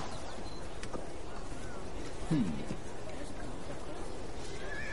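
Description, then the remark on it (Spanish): A white horse lets out a single short whinny partway through, brief, over a steady, noisy outdoor background. “por un caballo blanco.”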